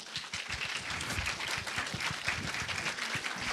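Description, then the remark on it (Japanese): Sustained audience applause welcoming SKE48's Jurina Matsui and Rena Matsui at an event marking the Blu-ray release of Princess Mononoke: a dense wash of many hands clapping steadily at moderate loudness throughout, with no voices standing out. “えー、2人の姫にこのお祝いをしに来ていただいております、えー、ご紹介させていただきましょう SKE48 の松井樹里奈さんと松井玲奈さんです大きな拍手でお迎えください”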